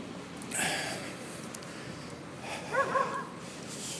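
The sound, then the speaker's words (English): A caged dog in a residential neighborhood barks once and then lets out a couple of short, high whimpering yips a few seconds later against steady outdoor background noise. “Oh, there's the dog.”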